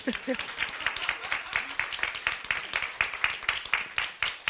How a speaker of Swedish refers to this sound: Ska vi börja med en applåd? Bara för så här...